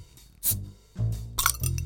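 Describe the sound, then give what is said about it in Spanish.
A beer bottle being opened, with a few short metallic clinks and bright hissy bursts spread over a couple of seconds, no talking. “Ah, cambiamos la lata por botella hoy día.”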